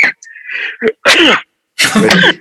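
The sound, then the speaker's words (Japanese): A loud fit of harsh coughing caused by a pollen allergy, several raspy bursts in quick succession with brief pauses between them, and no talking. “大丈夫か 花粉”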